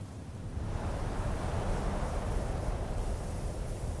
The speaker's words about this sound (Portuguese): Em certa tarde agitada, na Paris de 1931. O vento soprou com mais força do que fazia há dias.